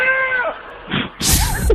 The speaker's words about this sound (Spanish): Es una cabra. Es una cabra, es una cabra. Es una cabra.